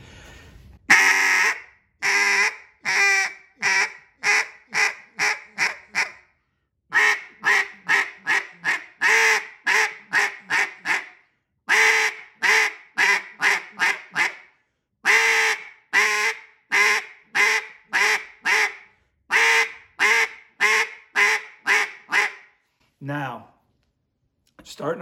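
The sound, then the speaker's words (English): A hand-blown mallard duck call, demonstrated in a duck calling lesson, sounds loud, raspy quacks in rapid rhythmic runs of several notes, separated by brief pauses, ending with a short lower, drawn-out note. “DUCK CALLING LESSON: From Beginning to Field”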